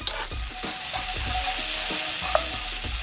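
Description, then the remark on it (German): Steady, dense sizzling of tofu and rice noodles, soaked in water beforehand, stir-frying in a wok, with soft scraping and tossing sounds every half second or so and one sharp clink near the end; no talking. “Dann werden Tofu und vorher in Wasser eingeweichte Reisnudeln in den Bock gegeben.”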